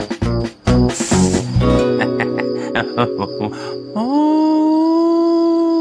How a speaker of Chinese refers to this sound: 是风声，哦对，就是风声。